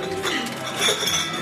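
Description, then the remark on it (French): Dishes and cutlery clink repeatedly in a busy café in Revelstoke, British Columbia, with a steady hum of indistinct chatter from customers and employees throughout. “Il y a de la vie, des clients, des employés et de la bonne bouffe.”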